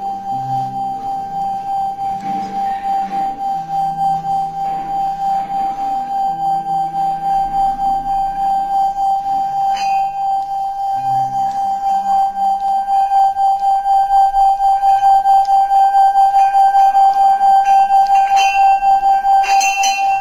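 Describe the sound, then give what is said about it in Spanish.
A Tibetan singing bowl rubbed around its rim rings with one steady, sustained tone that swells slowly and wavers gently, holding unbroken for the whole stretch, fairly loud. “esta campana se hace tallando el contorno de, de, la campana y va sonando poco a poquito.”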